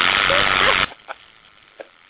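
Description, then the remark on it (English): A fishing reel's drag clicks in a fast, dense ratcheting buzz as line pulls off the reel, for just under a second, then cuts off abruptly, followed by two faint, isolated clicks in the quiet. “But see, that's the funny thing is uh, the noise sounds the same whether they're cranking it or if yeah. the fish is dragging it.”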